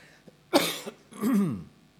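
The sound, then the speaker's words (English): A person with asthma gives two harsh coughs, a sharp burst followed by a rougher, more voiced one, with no talking around them. “I had a little asthma this week, so excuse me if I cough, but hopefully we'll get through okay.”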